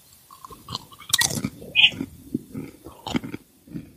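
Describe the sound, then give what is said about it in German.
Loud crunching of crisp beetroot vegetable chips being chewed, with sharp irregular bites and brittle cracks scattered through a few seconds of steady mouth noise. “Oh, das klingt gesund.”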